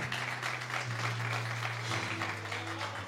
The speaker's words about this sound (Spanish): Al Señor, dele fuerte el aplauso a Dios y se lo va a dar con todo su corazón.